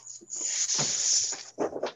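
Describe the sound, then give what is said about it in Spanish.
A dog makes a couple of rough, noisy bursts of sound, barking or whining, with a brief pause between them and a steady high hiss in the background. “Perro.”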